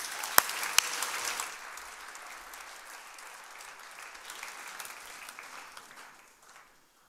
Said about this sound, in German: Und wir geben ihm Applaus.